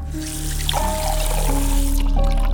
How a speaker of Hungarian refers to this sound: Tölt magának egy pohár vizet